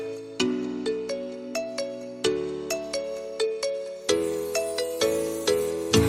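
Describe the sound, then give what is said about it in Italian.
A bright, bouncy pop song intro from a new music video by a duo plays on its own, with a chiming synth melody of short plucked notes over sustained chords in a steady, upbeat rhythm, clear and fairly loud. “adesso vado a controllare quante views ha avuto un nuovo video musicale di un duo che, insomma, quando si muovono loro è un delirio.”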